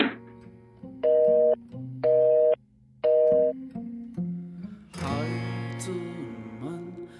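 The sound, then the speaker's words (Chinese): A telephone busy signal for a number that cannot be reached sounds three times: loud, steady, evenly spaced beeps over a soft musical backing, after which fuller music takes over. “您拨打的用户暂时无法接通，请稍后再拨。”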